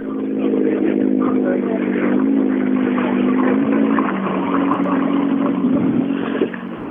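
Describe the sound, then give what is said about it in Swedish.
An Opel Astra kit car engine drives along with a loud, steady buzzing drone, its pitch shifting slightly up and down as the revs change, with no voices. “Och alltså en Opel Astra Kitcar.”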